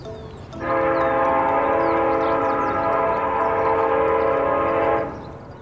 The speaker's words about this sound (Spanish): Y el cerebro, primero, escucha el tren y uno dice, bueno, pero no le pares tantas bodas al tren. Y entonces uno empieza a oír el lo que sea que uno le haga el sonido del tren, y pero uno sigue sabiendo que eso es un tren.